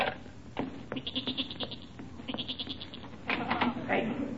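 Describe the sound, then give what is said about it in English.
A restless goat in a cellar bleats in a series of quavering, wavering cries, moderately loud, with short pauses between calls and a steady background murmur underneath. “That's the goat. He's getting restless down in the cellar.”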